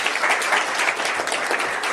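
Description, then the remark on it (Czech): A crowd applauds steadily, a dense wash of many hands clapping at an even, sustained loudness with no talking over it. “Díky, pojďme ještě zatleskat.”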